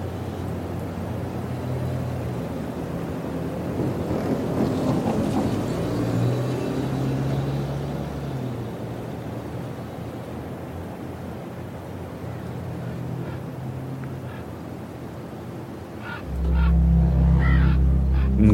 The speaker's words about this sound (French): De loin, on a l'impression que c'est un train qui passe, mais c'est un camion qui, glisse sur la neige. Et derrière, il y a un immense souffle comme de la poussière, mais c'est toute la neige qui est balayée.